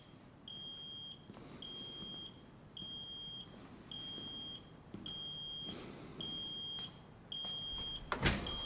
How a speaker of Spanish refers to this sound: Mira hacia el escritorio, pero se levanta al escuchar una alarma.